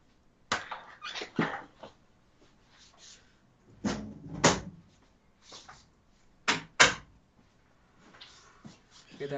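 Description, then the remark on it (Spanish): A door is handled and shut: a run of sharp wooden knocks and clunks, including a heavier low thud midway, spread across several seconds with quiet gaps between them. “Voy a cerrar mi puerta y voy a decir algo, ¿ya?”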